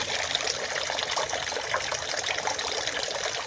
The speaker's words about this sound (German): Das Mache ich jetzt mal nicht, weil wegen Corona und so das ein bisschen gesperrt ist, aber äh, man kann so trotzdem das Wasser, Wasser rauschen hören, glaube ich.